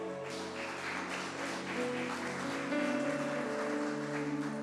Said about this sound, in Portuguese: Aleluia. Aplaudam Jesus bem alto.